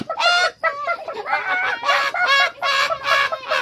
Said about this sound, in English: He screeched and cackled. The hens woke up and screeched and cackled.